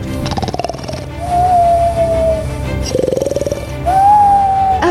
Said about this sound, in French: Mais ça alors D'où vient ce bruit Un ronflement C'est mon voisin peut-être Mais mais non, ce n'est pas possible. Ça vient, ça vient de la cabine du pilote.